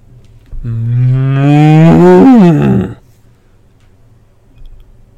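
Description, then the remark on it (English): A single long, loud cow moo, rising slightly in pitch before trailing off, followed by quiet low rumbling background. “Did I just hear a cow?”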